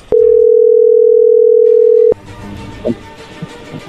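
A loud, steady telephone dial tone as a call is placed hums at a single low-mid pitch for about two seconds, then cuts off abruptly, leaving faint background noise and a few soft clicks.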